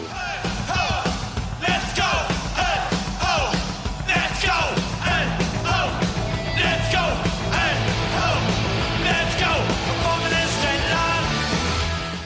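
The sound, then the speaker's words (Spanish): Loud, driving punk rock from a New York band with a crowd of voices yelling the chant "Hey Ho, Let's Go" in rhythm, the shouts repeating over thrashing guitars and pounding drums that fill the whole stretch. “Y su grito de guerra, Hey Ho, Let's Go.”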